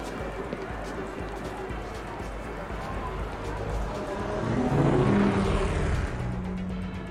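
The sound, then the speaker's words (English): In a video game, a futuristic air car hums and whooshes as it settles in to park, its engine tone swelling louder and rising midway before easing off, over a busy, noisy city ambience with holographic neon signs. “Uh, our air car is parking.”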